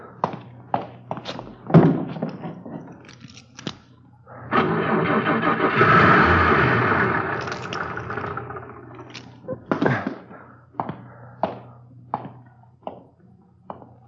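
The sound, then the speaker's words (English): Several mechanical clunks and clicks, then a car engine cranks and catches, rumbling loudly for about five seconds before cutting out, followed by more scattered clicks and knocks. “You should have turned on the ignition.”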